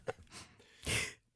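A single sneeze: a short catch and a breathy inhale, then a loud, bursting, hissing expulsion that cuts off quickly into quiet.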